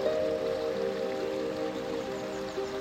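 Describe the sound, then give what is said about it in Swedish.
A steady, continuous babble of water from a small waterfall in a little creek under a tree, fairly loud and even throughout, with a faint low hum running beneath it and no voices. “En väldigt fin natur där jag kan höra fåglar, kan höra vattnet här bakom, hur den porlar och eh, bara känna den här sköna naturen nära intill mig.”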